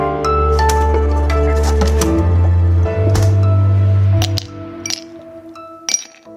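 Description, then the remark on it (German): A glass bottle of after-work lemonade being opened on a hot day: a series of sharp glassy clinks and taps over a steady low hum, ending with a couple of isolated clicks. No one speaks. “Hören Sie das? Das ist mein Ersthelfer gegen die Hitze, meine Feierabendlimo.”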